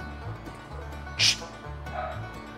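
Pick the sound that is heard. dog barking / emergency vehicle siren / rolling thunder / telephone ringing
dog barking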